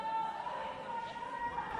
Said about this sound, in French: On vous donne un petit moment pour euh, prendre la foule, euh, entendre les conversations.